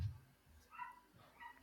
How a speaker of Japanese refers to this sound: ああ、犬が鳴いている。あ久しぶりに聞くな。そうなんですよ。あの子、ちょっとしか聞こえなかった。うん、最近ちょっとおとなしめだったんですけどこの間めちゃめちゃ怒られてたあちなみにうちの犬ではないですはい、近所の犬なんですよね